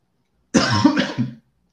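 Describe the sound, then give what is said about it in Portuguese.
A harsh burst of coughing lasting under a second from a person who has just choked, a few rough throaty hacks run together, then silence. “Desculpa quem um tá ouvindo, mas eu não vou editar essa tosse. Me engasguei.”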